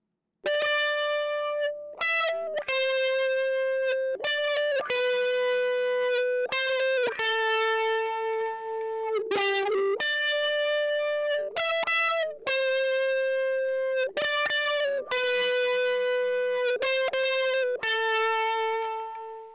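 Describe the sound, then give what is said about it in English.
Distorted electric guitar played alone through a DS1 distortion pedal, with repeated string bends swelling as a wah pedal is engaged toe down on each bend; sustained, bright, harmonically rich notes separated by brief pauses over about twenty seconds. “We're leaving our DS1 on for this part and engaging the wah toe down every time we kick into a bend.”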